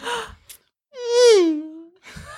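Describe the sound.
A voice imitates a Formula 1 car with a single smooth, buzzing sweep that climbs briefly then drops in pitch, like a car zooming past. Short bursts of other sounds come just before and after.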